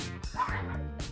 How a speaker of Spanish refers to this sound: Y disculpen si escuchan que perros están peleando. No son míos, son los del vecino